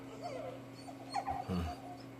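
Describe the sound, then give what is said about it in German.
A dog whimpers in a few thin, high, plaintive whines, with a short louder yelp-like burst near the end, over a low steady hum. “Ich höre immer noch das klägliche Winseln eines Werwolfs.”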